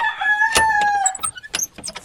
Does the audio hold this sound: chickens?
yes